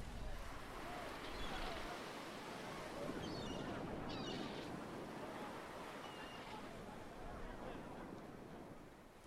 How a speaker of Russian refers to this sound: Теплая вода осторожно касается белого песка и возвращается обратно.